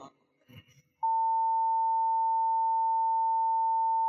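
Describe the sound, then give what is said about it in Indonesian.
A brief snatch of voices cuts off into a loud censor bleep, a steady, unwavering mid-pitched tone that holds for about three seconds until the end. “sensor aja sensor kita”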